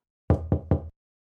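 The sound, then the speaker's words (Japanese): Three quick knocks on the driver's side window of a car in an even rhythm, fairly loud, with a dull resonant thud under each rap and no voices. “彼は目をつむって事件の情報を整理することとした矢先運転席側の窓をノックする音が聞こえた”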